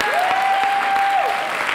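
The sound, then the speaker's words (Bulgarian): An audience applauding steadily, a dense wash of many hands clapping at an even loudness throughout, with a sustained high tone gliding up and holding underneath the clapping. “О, ако ръкопляскаш, ръкопляскаш, като че вярваш за повече.”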